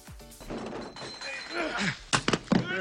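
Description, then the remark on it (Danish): A staged movie fistfight between two men: they grunt and strain through a scuffle, then a quick burst of three or four hard, punchy thwacks lands near the end. “To mænd, der slås.”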